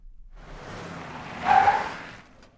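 A car on a city street brakes suddenly for a porter striding across without watching the traffic lights, its tires letting out a short, mid-pitched squeal over a rushing swell of road and engine noise that peaks midway, then fades away. No one speaks.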